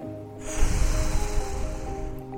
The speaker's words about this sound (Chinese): 然后他深吸一口气